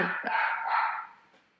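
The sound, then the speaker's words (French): A single drawn-out bark from the speaker's dog, moderately loud, ringing for about a second before trailing off into quiet. No one speaks. “entendu euh, mon chien T'en fais pas, c'est les aléas, ça c'est pas grave du tout.”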